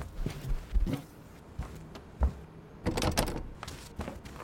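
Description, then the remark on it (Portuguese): A door handle is jiggled and rattled several times in quick, uneven bursts, with dull thuds as the door is pushed against its latch, fairly loud with no talking. “Quais as chances de todas as portas estarem trancadas?”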